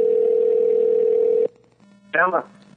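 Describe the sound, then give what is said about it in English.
A steady telephone dial tone hums for about a second and a half, then cuts off, leaving a faint low tone on the line before a brief voice answers. “It's not even freaking ringing. Maybe I'll have to call him from Mike.”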